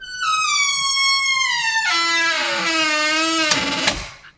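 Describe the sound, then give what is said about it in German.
A café door squeaks in one long, continuous creak that glides downward in pitch and turns harsher midway, ending with a couple of dull knocks as it settles. No voices are heard. “Ich, ich erfreue mich am Quietschen der Türe, am Café.”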